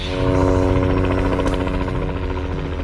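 A loud, steady helicopter drones, its rotor chop forming a rapid rhythmic pulse over a deep engine rumble, with no voices, flying to a remote, high mountain water catchment area near Cape Town.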